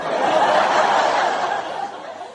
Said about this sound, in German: jetzt wollte ich zu einem Hasstrope, von, äh, was mit Sounds zu tun hat. Und das finde ich wirklich komplett unerträglich. Das sind eingespielte Sitcom-Lacher.